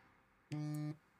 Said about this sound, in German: oh, das war mein Handy.